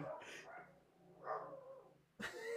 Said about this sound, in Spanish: Y disculpen que, mis perros traen relajo allá afuera, pero son nuestra alarma.